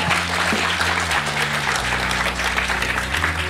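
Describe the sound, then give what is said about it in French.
A live audience at the Club de l'Étoile, about to watch a film on the big screen, applauds steadily, a dense crackle of many hands clapping at once that holds at an even, fairly loud level throughout, with a low musical hum beneath. “Et aujourd'hui, la configuration, elle aussi, est un peu spéciale puisque nous sommes en public. On peut entendre, je sais pas.”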